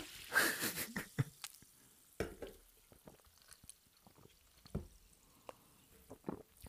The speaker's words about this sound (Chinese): 都让我们一起听听气泡水的声音。